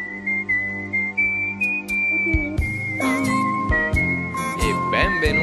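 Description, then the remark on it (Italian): A steady whistled melody carries a simple opening theme tune, soon joined by bright, busier music with tinkling accents that grows fuller through the second half. “Potremmo fischiarla noi.”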